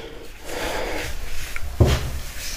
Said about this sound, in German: Dann wollen wir mal die Wäsche in den Wäschekorb machen. Damit wir auch, ja, ist auch gut durchgeschleudert worden.